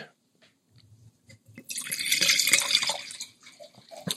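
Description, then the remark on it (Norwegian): A drink is poured into a glass: a few soft taps and drips, then a steady splashing pour lasting over a second, tapering into small trickles. No one speaks. “Heller i glasset, vakre lyder.”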